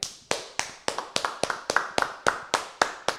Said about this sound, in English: You guys don't have to stand up, especially everyone if you're stand driving a car. Up, clap your hands for Jeff work. Wittek.